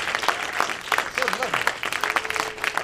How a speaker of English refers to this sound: Thank you very, very much for the support. It means a lot to us and, and our little film. So, really, really great to see you all. Thank you. Yeah, you can give yourself a round of applause.